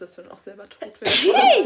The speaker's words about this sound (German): Ja, Gesundheit